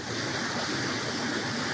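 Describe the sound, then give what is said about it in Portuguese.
A steady, dense rush of rainwater flowing down in Salgueiro, in the sertão of Pernambuco, Brazil, after a night of heavy rain, like a fast stream or runoff pouring down, continuous with no breaks or voices. “Esse é o sertão pernambucano, essa é a nossa querida Salgueiro descendo água com essas chuvas aí da, da noite, uma noite boa de chuva aqui no nosso sertão pernambucano.”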